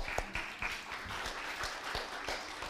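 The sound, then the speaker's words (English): An audience breaks into applause for a man who prepared a Christmas dinner for the men, a dense wash of many hands clapping steadily with sharp individual claps popping out, sustained at moderate loudness throughout with no speech over it. “but guys, I want to just give him a round of applause”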